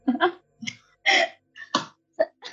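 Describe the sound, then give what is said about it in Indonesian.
A burst of several short, harsh coughs in quick succession, each a rough throaty bark with brief pauses between, fairly loud with no talking. “Batuk lu gua.”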